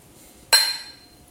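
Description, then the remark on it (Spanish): A single bright clink of glass striking glass in a toast, sharp, with a ringing tone that lingers and fades over a fraction of a second. “Salud.”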